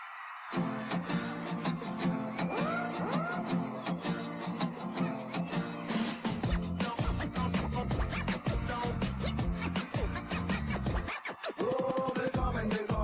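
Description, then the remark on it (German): An upbeat pop dance track kicks off with a steady, driving beat and bright synth layers, loud and continuous, with a brief drop near the end before the groove returns. “Und ich würde sagen, bevor wir jetzt den nächsten, den letzten Block noch einmal angehen mit ein paar allgemeinen Bemerkungen, hören wir uns noch etwas Heiteres an”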